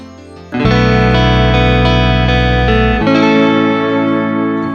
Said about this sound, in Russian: за композицию «Летний вечер». Именно она звучит в подкасте.